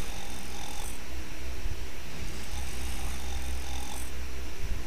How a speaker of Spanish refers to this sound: Por la ventana observó que en la cama no estaba la abuela, sino el lobo, que roncaba profundamente.